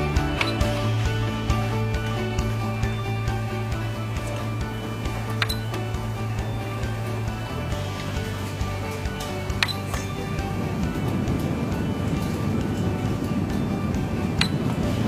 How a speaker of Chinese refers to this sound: 这两款电风扇呢，都说自己在运行的时候噪音极小，我们就一起来看一下，到底它们的噪音有多小呢？来测第一个。